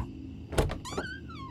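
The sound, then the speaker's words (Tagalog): A solid clunk like a latch or lock releasing as an office door is unlocked with a duplicate key from the front desk, followed right away by a rising, drawn-out creak as the door swings open, with no one talking. “Mabuti na lang at may duplicate key yung opisina na nasa front desk kaya nabuksan din namin nito.”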